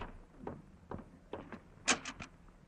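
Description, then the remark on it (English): A front door on the Jack Benny program is opened, with Rochester answering it, in a series of soft thumps and rattles, ending in a sharper, louder clack of the latch. No one speaks. “You answer the door this time, Rochester.”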